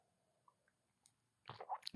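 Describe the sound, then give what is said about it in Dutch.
Someone takes a quick sip of a drink, with soft wet slurping and swallowing sounds after a near-silent pause broken by a couple of faint clicks. “Wacht, ik ga even een slokje nemen, maar.”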